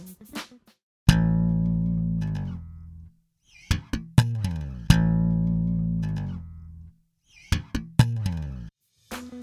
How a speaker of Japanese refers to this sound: このベースパートを耳コピしてですね再現していただきました